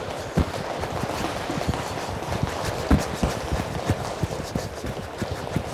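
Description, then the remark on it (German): Rapid, irregular patter of many feet running in place on a hard floor during boxing training in a small gym, with two trainers and eight boys aged 14 to 17 standing in a circle; dense and continuous with a few louder thuds, echoing slightly. “Auf der Stelle laufen, Arme kreisen lassen,”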